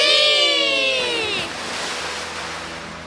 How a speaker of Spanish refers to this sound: los niños la visitan para jugar y cuando no pueden dormir, ella los arrulla con sus suaves olas.